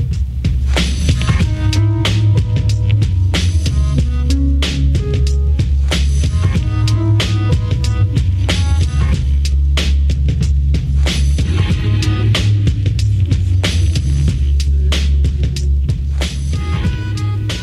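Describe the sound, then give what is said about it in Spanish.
A loud, dense stretch of alternative rock plays without pause: heavy bass, steady pounding drums and thick distorted guitars, with no one talking over it. “y este tema me encanta, no sé si lo puedes poner un poco porque es un, es un gran resumen del disco.”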